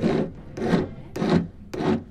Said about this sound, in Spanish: sus limaditas para quitarle los martillazos. Para que quede parejito. Ya te va quedando parejito.